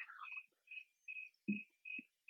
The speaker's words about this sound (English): Um, what in the hell is going on? Are there crickets out there? Is that over by me? No, that's here. We're down in the barn again. Oh, okay. Or the sawmill.